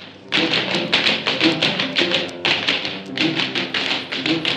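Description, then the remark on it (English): Rapid, bright tap-dance steps clatter in quick rhythmic bursts, crisp metallic clicks stacking into busy flurries with brief pauses between phrases, fairly loud and with no voices. “Pretty fancy footwork there, boys.”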